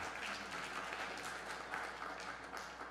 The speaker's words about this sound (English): Um, yeah, applaud him.